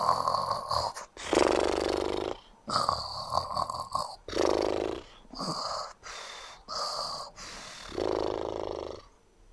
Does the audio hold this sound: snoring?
yes